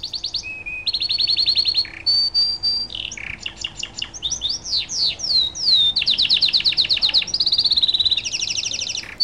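A canary sings continuously, rapid trills and repeated chirps shifting between bright whistled tones and fast rattling phrases, with no other sounds.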